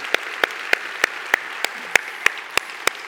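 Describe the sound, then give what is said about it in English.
An audience applauds, a steady wash of clapping with sharp, evenly spaced claps standing out at roughly three per second, fairly loud and with no voices over it, honouring standing members for their loss and sacrifice, on the eve of Memorial Day. “Folks, can we, can we acknowledge that with our applause?”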